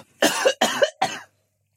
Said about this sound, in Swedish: Eh, vill du hosta?